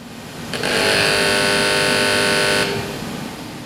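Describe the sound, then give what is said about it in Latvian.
A printing press at a printing company on Mūku salas Street in Riga, in autumn 2020, starts printing the Latvijas Avīze newspaper supplement Zaļā Latvija with a sudden loud, steady mechanical whir and humming tone, running for about two seconds before cutting off, leaving a low background rumble. “Poligrāfijas uzņēmuma darbinieki iespiedu mašīnā sāk drukāt laikrakstu.”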